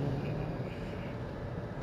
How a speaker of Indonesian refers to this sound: ini lagi di mobil dan perjalanan ke Surabaya dari Malang